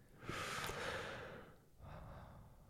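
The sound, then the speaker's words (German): A long, deep breath drawn in with a loud airy rush, a brief pause, then a slower exhale through the nose, as a shared relaxation breathing exercise, with no talking. “Wir atmen gemeinsam ein.”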